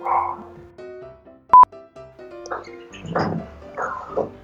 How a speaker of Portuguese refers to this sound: ah não, tá latindo ainda.